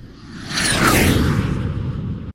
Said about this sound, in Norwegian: Mot f.eks. Uh, eh, lyden av et jagerfly, da.